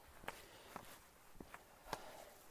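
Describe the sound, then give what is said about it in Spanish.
Sharp, light taps of trekking poles striking the ground at an irregular walking pace, about five in a few seconds, faint, with no voices, as a hiker with a backpack walks through a forest on the way to Santiago. “lo que escuchan ahí al fondo son los palitos, los bastones que nos ayudan a mantener el equilibrio, que nos apoyan con nuestros tobillos y nuestra mochila.”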